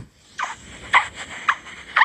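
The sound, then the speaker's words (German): Four squeaky footsteps crunch across dry beach sand in a steady walking rhythm, each step a short, high chirping squeal, recorded on an iPhone held against the walker's foot on 12 November 2009, with no voices. “habe das sah mit ziemlich witzig aus, über den Strand gelaufen und das Telefon so an den Fuß gehalten.”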